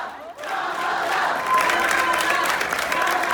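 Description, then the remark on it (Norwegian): Supporters of Kamala Harris cheer and applaud loudly and steadily as she launches herself as a presidential candidate for the Democrats, a dense wash of claps, shouts and whoops that swells after a brief quieter start and stays at full volume throughout. “Her hører du tilhengerne Kamala Harris jubla da hun lanserte seg som presidentkandidat for Demokratene i november, men valget falt altså på Joe Biden.”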